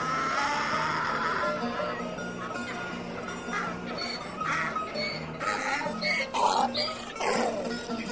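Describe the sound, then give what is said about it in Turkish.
A donkey brays loudly, a long rasping run of harsh, wheezing honks that swell and break over about eight seconds. “diye anırmaz mı?”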